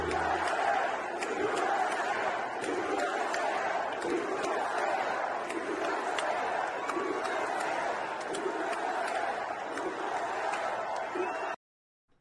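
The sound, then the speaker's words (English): A large crowd at a Donald Trump rally roars and shouts together for about eleven seconds, a dense, sustained wall of cheering and chanting voices with scattered sharp claps, before cutting off abruptly. “Ladies and gentlemen, this is what you'll find if you go to a Donald Trump rally.”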